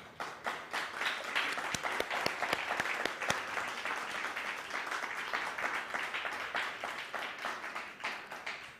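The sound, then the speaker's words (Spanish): An audience bursts into loud, sustained applause, a dense crackle of many hands clapping at once that holds steady for about nine seconds without fading. “Ahora sí, un fuerte aplauso, por favor. Fuerte, fuerte, que se escuche.”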